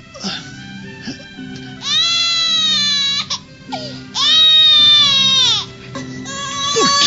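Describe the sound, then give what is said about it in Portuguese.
An infant wails loudly in long, strained bursts, two big sustained cries with short gasping breaks between them, insistent, ending in a rising whimper. “essa infeliz criança chora tanto.”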